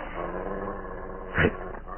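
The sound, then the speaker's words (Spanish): A low, menacing animal growl rumbles steadily throughout from among the fog, rising into a sharper snarl near the end before settling back into the deep, continuous growling. “¿Qué, es eso? gruñidos.”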